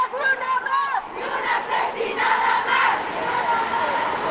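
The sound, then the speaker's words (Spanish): A crowd of women protesters at a march along an avenue shouts and chants slogans together, a steady loud wall of voices with a few higher cries rising above it at the start. “las mujeres bailan libres por la avenida, gritan consignas, pintan calles, recuerdan que el movimiento de las mujeres sigue en pie”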